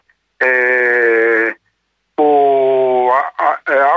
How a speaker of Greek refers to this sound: Χτύπησε και το άλλο τηλέφωνο τώρα και με διέκοψε.